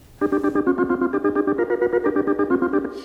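An old novelty song recording: a bright, buzzy chord-like tone throbbing in a quick, steady pulse, loud and unbroken for a few seconds with no voices.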